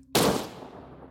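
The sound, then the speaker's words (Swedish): A single loud revolver gunshot cracks out sharply after a brief silence, then trails off in a long, fading reverberant tail with no voices. “Revolvern smäller av och allting svartnar.”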